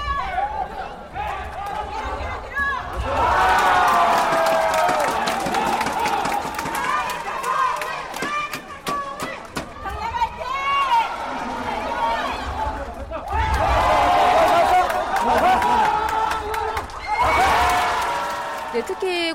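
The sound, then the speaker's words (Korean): A stadium crowd cheers at a sepak takraw match, loud roaring swells rising and falling over steady babble, with scattered clapping and shouts rising out of the din. “이 중요한 경기에 힘차게 호응하면서 경기장의 분위기를 돋우고 있습니다.”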